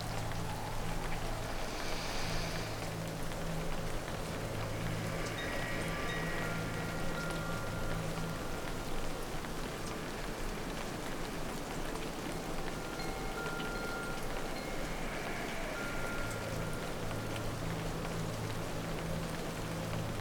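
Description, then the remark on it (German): Soft, steady rain patters continuously on the surface of a rising balloon, a dense fine drumming that holds even for the whole stretch, with a low hum underneath and no voices. “Für einen Moment macht sie die Augen zu und loset nur auf das feine Geräusch, wo der Regen auf dem Ballon macht.”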